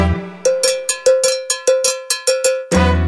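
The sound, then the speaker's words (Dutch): A cowbell is struck about a dozen times in a quick, steady salsa rhythm, each hit bright and metallic with a short ring, while bass-heavy band music swells at the start and end. “Con piruetas adornando los soneos, desde la multitud se escucha un campaneo.”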